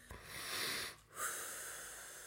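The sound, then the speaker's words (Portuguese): One deep, airy breath: a long hissing inhale, a brief pause, then a slow, steady exhale that fades out. No one speaks. “Ah, vamos respirar fundo, que às vezes o mundo não o permite.”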